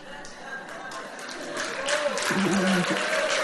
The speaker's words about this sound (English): Oh, you can give the Lord a better clap offering if you're if you're IMI. Amen.